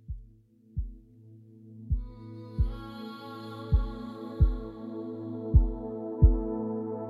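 Deep, muffled heartbeat thumps in paired beats repeat steadily while a soft sustained musical drone swells up beneath them and brightens midway.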